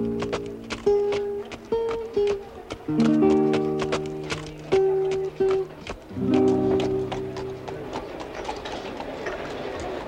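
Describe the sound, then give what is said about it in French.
Steady horse hooves clip-clop in an even rhythm at a livestock fair, over sustained, held musical chords that continue throughout. “À la foire aux bestiaux, c'est un cheval qu'il me faut.”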